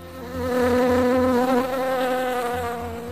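A bee buzzes steadily, its droning hum wavering slightly in pitch as it hovers, lasting a few seconds with no voices.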